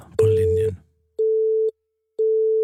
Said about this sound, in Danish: Det er som om, der er optaget. Ja, det er som om, der er optaget.